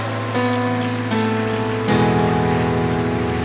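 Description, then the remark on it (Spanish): A church audience applauds the Lord steadily in a dense, continuous wash of clapping, while sustained keyboard chords shift underneath; no one speaks. “Suelte su Biblia y dele fuerte ese aplauso al Señor.”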